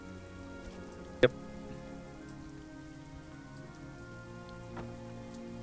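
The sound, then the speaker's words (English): Steady evening rain patters on a surface in a continuous, even hiss, with one sharp drip or tap standing out early and a softer one near the end. No voices are heard. “It's in the evening, everyone's off work, it's rainy, so they don't want to be outside.”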